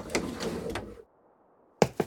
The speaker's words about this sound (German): Sie ist die Strickleiter nach oben geklettert und klopft am Fenster.